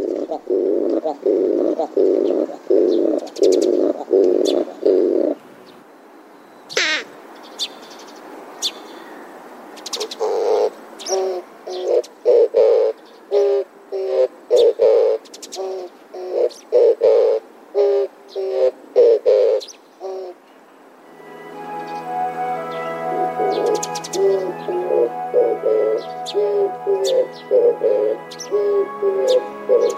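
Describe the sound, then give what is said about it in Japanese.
An Oriental turtle dove gives its low, hooting courtship coo in the breeding season, in repeated rhythmic phrases with brief pauses between bursts; a steadier, buzzy layered sound takes over toward the end. “今朝は繁殖期のキジバトの声をお届けしました”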